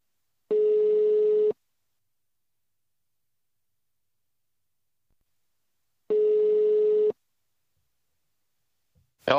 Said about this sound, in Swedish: Så vi ringer väl upp honom och, och får vi se vad han har att säga.